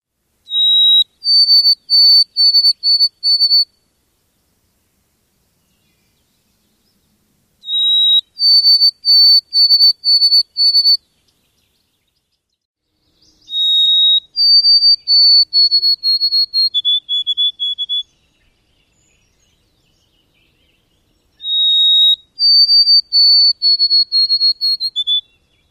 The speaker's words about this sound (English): It sings, Oh, sweet Canada, Canada, Canada. I read a book once that referred to them as the O Canada birds, which I think we should all just collectively call them from now on. Anyway, one more time, here's the white throated sparrow.